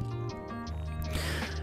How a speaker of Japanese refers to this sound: あのー、今ね、エアコンをちょっとつけてるんで、ちょっとね、あのー、マイクにその音が入っているかもしれないんですけど、そこはちょっとご了承ください。